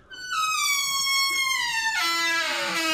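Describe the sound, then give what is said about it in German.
A door hinge squeaks in one long, loud, whining note that slowly slides downward, then turns rougher and lower near the end. No one speaks. “ich bringe ihm nächstes Mal wirklich Öl mit. Das geht so nicht.”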